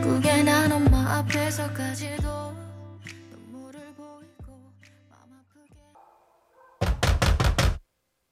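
A song with a low bass line winds down to near silence, then hard pounding on a door, part of the song's own ending, comes in a quick burst of about five loud knocks.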